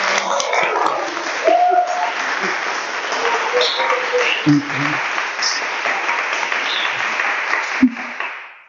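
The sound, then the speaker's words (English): A sustained round of applause fills the whole stretch, dense steady clapping from a crowd with a few brief tonal calls or whoops rising above it. “And so, extra round of applause because that was really fantastic.”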